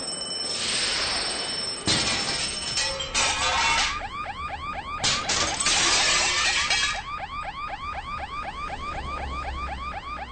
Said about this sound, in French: À ce moment, vous avez entendu le système d'alarme de l'hôtel et des bruits de verre brisés dehors.